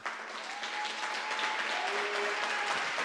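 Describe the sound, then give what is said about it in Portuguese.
An audience applauds the Lord steadily, a dense wash of many hands clapping at even loudness throughout, with faint tonal hums and a few voices barely audible beneath. “Então dê um forte aplauso ao Senhor.”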